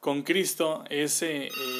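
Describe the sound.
A telephone rings in the background at home, its bright electronic trill partly buried under a person speaking and hesitating in the foreground.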